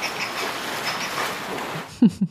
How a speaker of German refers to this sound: Also den Vergleich mit einer Clique von Teenagern oder auch mit dem Kindergarten, den finde ich ganz passend, denn manchmal klingen die Pelzrobben echt so, als würden sie loskichern.